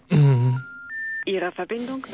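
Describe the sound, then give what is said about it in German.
Two steady electronic telephone keypad tones, one after the other, sounding between stretches of a man's voice talking. “Was ich natürlich blöde finde, wenn wir jetzt die ganze Zeit nur dieses, diesen Scheiß hier hören. Ja. Und er mit der von uns recherchierten Telefonnummer jetzt seinen halt Spaß hat.”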